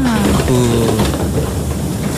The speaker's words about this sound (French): c'est la porte des métros